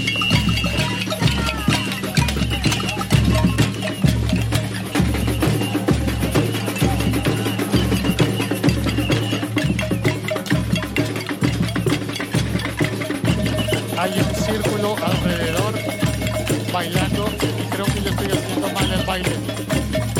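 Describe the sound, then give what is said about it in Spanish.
A loud, dense cacerolazo protest crowd bangs pots in a steady, festive rhythm and dances at night at the Parkway, with a deep pulsing beat underneath and clattering metallic hits running continuously throughout. “Y aquí el primero de los grupos de Caserolazo, Como notarás es una fiesta, y están bailando.”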